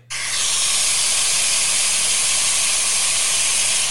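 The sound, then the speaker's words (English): Heavy afternoon rain at a house in Florida, falling while the sun is out, pours down in a dense, steady hiss that begins abruptly and stays loud and unbroken throughout, with no voices or other sounds breaking through. “That's rain.”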